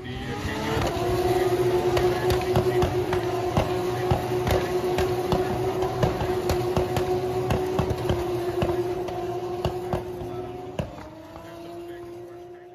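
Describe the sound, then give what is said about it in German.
A Formula 2 race car engine holds a loud, steady drone while sharp exhaust bangs crackle repeatedly over it through each gear, before the pitch drops slightly near the end. “Findest du Formel 2 und Formel 3 lauter als die Formel 1?”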